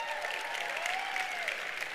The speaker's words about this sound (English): So you should all tell them congratulations because that's awesome they got engaged, right? How about a little round of applause for that?